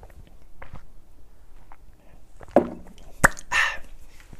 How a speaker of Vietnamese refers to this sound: ok bây giờ chúng ta hãy cùng nhau hớp một ngụm nước nha mọi người ha